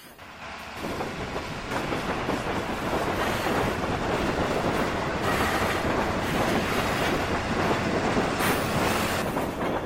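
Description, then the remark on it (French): Loud, dense mechanical clatter from machinery in a cotton mill fills the space, a relentless rattling roar that swells in after the first second and continues steadily without pause or voices. “Le bruit des machines est absolument assourdissant et peut-être d'ailleurs à l'origine de problèmes auditifs pour les ouvriers.”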